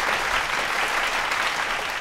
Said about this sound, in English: So uh, we got to give you a round of applause. Make sure you take your bow, get your flowers.